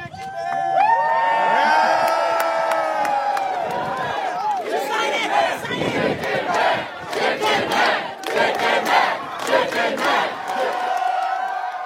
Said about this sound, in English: they're out there cheering for him you know i think they just faced some pretty difficult sports losses and they really just turned out because they needed something to support